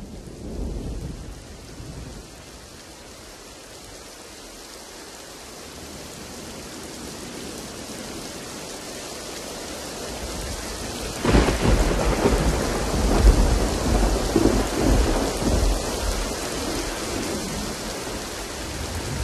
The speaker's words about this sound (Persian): امروز 13 اردیبهشت 1400 است و از دیروز یک شنبه بالاخره بارانهای بهاری آنطور که شایسته نام بهاری باشند باریدن گرفت.